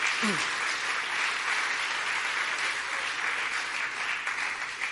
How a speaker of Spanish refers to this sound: Dale un buen aplauso a Él. Si tú tienes a Cristo, alábalo.